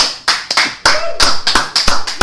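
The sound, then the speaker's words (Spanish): A crowd applauds to welcome a speaker being introduced, a dense, steady patter of many hands clapping with a few sharper claps standing out, loud, lasting the whole moment with no voices. “Fuerte el aplauso.”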